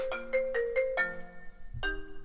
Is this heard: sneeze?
no